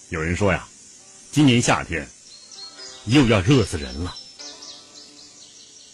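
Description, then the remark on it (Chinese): A steady, high-pitched buzzing drone of cicadas in the treetops around Hangzhou Bay, in early summer under a scorching sun, runs through the whole clip, faint beneath a man's speech and clearer once he pauses near the end. “公元一八七七年六月十四日，虽是初夏，杭州湾一带已是蝉鸣树梢、日烤地头，一派暑热炎炎气象。”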